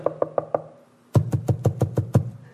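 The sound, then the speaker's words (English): Knocking on a door, unaccompanied: four quick, light raps, a short pause, then seven heavier, evenly spaced knocks with a solid, hollow thud. “and keep on knocking, do it and keep doing it.”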